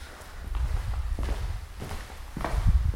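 Footsteps walking through a house toward the kitchen at an unhurried, steady pace, each step a soft thud on the floor, over a low background rumble with no voices.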